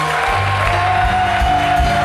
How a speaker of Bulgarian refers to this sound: Ръкопляскай, ако вярваш, точно сега.